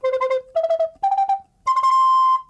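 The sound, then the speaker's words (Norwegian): An alto recorder, deeper than the soprano recorder, plays four clear, breathy notes, stepping upward from a lower tone, the first three short and separate and the last held steadily for nearly a second, fairly loud. “Um, og så har vi altfløyten, som selvfølgelig er litt dypere.”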